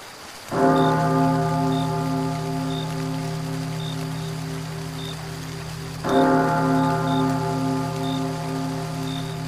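A large bell is struck twice on a rainy night, several seconds apart, each deep clang ringing out and slowly fading, over a steady hiss of rain in the background.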